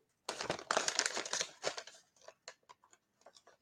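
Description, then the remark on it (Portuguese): Plastic bag crinkling as someone works at a knot to open the bag without scissors: a loud burst of rustling at first, then scattered shorter crinkles and rustles trailing off. “Imagina isso aqui na Globo, quanto já ia ter gastado tempo para abrir uma sacola.”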